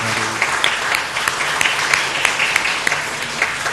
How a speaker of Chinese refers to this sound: 我们先用热烈的掌声欢迎他们，好不好？